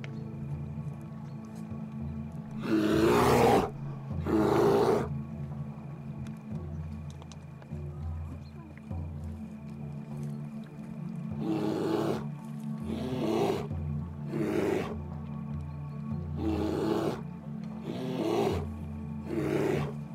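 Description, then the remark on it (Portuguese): A female bear, a large animal, roars several times in loud, rough bursts, mostly coming in pairs, over a steady low droning background with no talking. “É um animal de grande porte. Observa esta ursa, estabelece conexão com o seu olhar.”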